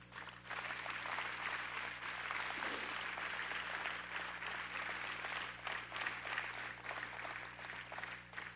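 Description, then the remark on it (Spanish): An audience applauds their God together in a dense, sustained wash of clapping that holds steady for several seconds, with no voices standing out above it. “¿Puedes dar un aplauso a tu Dios?”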